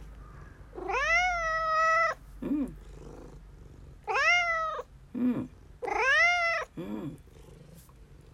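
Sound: cat meowing and purring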